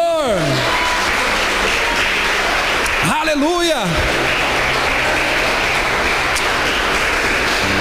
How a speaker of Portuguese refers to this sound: se você crê nisso, levanta as duas mãos, porque é uma época, e aplaude ao nome do Senhor.